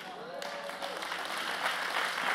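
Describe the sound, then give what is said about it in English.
An audience breaks into steady applause for themselves, a dense crackle of many hands clapping that holds and swells slightly over a couple of seconds, with a faint voice briefly underneath at the start. “Applaud yourselves because you were created by God.”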